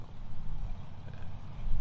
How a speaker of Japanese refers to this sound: あエンジン音エンジン音かなんか聞こえてきました